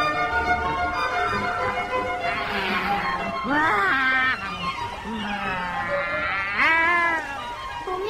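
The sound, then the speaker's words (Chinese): A fat cat meows several times, drawn-out and rising-then-falling tones, the clearest around the middle and near the end, over a steady background hum. “过来，过来，过来，过来，我们呐、啊，离那个臭肥猫啊远一点啦，哈。”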